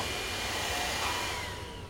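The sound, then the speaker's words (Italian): A vacuum cleaner, used by a mother for cleaning, runs steadily with a loud, continuous whirring roar that barely changes in pitch, alone with no voices over it. “Potresti smettere con questo aspirapolvere, ti scongiuro.”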